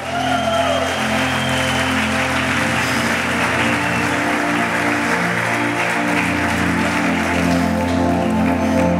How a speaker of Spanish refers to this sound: Póngase sobre sus pies y dale un aplauso al Señor esta mañana.